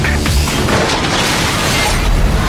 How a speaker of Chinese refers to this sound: 撞车场面相当震撼，但很可惜小车没被夹在中间，车内的老兄直呼精彩，很劲爆的一次实验。